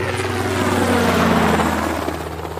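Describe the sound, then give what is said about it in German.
A large helicopter's rotor and engine run steadily and loudly in a hangar, a constant low mechanical drone with a rapid pulsing chop throughout and no voices. “So, äh, und damit sind wir dann tatsächlich auch schon beim Hubschrauber.”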